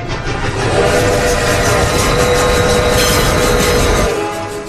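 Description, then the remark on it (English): A train rumbles past, a dense, loud clatter of wheels on rails with a faint whistling tone running through it, holding steady before easing off at the very end. “Seriously, stop the train!”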